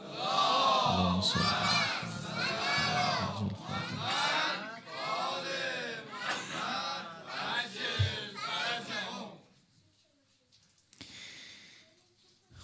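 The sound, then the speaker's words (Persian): A large crowd loudly chants salawat, a religious blessing, in unison, many voices rising and falling together in rhythmic phrases for about nine seconds before fading into quiet. “هدیه به پیشگاه متحره حضرت زهرا سلام الله علیها با توجه ولی خیلی بلند سلوات بفرستید”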